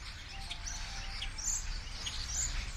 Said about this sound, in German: Stare sitzen im Sommer und Herbst in großer Gruppe in einem Baum und zwitschern munter und für das ungeübte Ohr chaotisch und laut durcheinander.